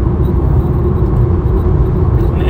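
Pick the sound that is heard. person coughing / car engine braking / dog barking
car engine braking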